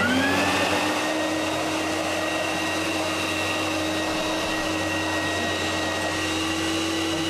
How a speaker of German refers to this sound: Ich mach das jetzt an. Machen den Wassersauger und füllen das klare Wasser zum Nachsprühen.